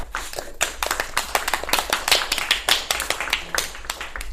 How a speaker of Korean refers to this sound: 제가 녹음을 하고 나니까 이 박수 소리가 굉장히 많더라고요 우리한테 그래서 박수는 생략하셔도 돼요